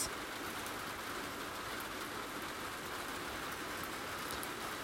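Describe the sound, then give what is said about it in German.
Steady, even rainfall hisses continuously over a terrace, a dense wash of pattering drops with no pauses or voices, holding the same level throughout. “Es regnet. Und ich liebe dieses Geräusch und empfinde es als sehr angenehm und heilend.”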